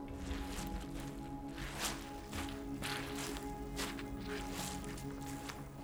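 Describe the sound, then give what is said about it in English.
Steady footsteps squish and splash through soggy ground at an even walking pace, with a constant low rumble and hum underneath. “You can feel it when you're walking in the area because in some places it's really making this splashing sound.”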